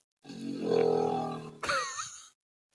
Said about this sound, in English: Here is the moa, or at least a recreation of what you might have heard in the New Zealand bush long ago. This is courtesy of Te Papa. Sounds like a cow.